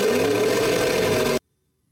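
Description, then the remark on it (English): A harsh, glitchy synthetic engine drone from an engine sound simulation running below 80,000 frames roars loudly with a distorted buzz for about a second and a half, then cuts off abruptly into silence. “If it doesn't run, run at 80,000 frames, it does this.”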